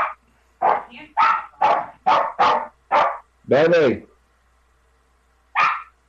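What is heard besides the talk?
dog barking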